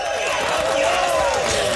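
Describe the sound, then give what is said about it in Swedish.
A recorded sound effect of crowd applause with cheering mixed in, played by a host from his desk in a studio to welcome a guest, the entertainment chief of Nyheter 24. It is a dense wash, steady and fairly loud throughout, like a large audience clapping and shouting together without pause. “Och hon ska få den största applåden jag hittar här på mitt lilla bord framför mig.”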